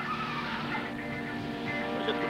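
A car engine roars steadily while tires squeal and skid, loud for a couple of seconds, with no voices: a car in a film chase scene arriving hard at speed and wrecking its suspension.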